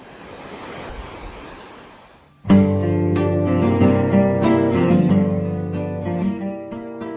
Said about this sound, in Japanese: 今回は波の音バックに、おー、波来た波来た。波の音バックにお届けしております。